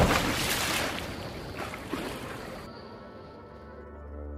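A loud rush of splashing water that suddenly turns muffled and low, like a body plunging into a river and sinking beneath the surface, as a man is pushed from a train coach door while the train crosses a bridge over the river. No voices.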